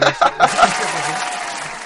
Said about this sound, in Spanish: Ganan Conde Dooku y Yoda los mejores Jedi. ¡Madre mía, los más veteranos! Increíble. Por favor, unos aplausos, unos aplausos Es increíble que el mejor Jedi sea el Conde Dooku.